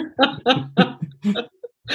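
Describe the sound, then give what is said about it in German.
A short, voiced burp sounds amid a few choppy throaty vocal bursts, with a low droning tone running under the middle of the sequence before a final burst at the end. “Oder hat gerülpst, ich bin mir nicht sicher. Ich glaube, es war ein Rülpser.”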